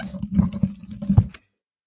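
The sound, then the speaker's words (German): Water runs and splashes for just over a second in a few uneven gushes as someone fetches water, then cuts off abruptly into silence. No one speaks. “Ich glaube, ich gehe auch Wasser holen.”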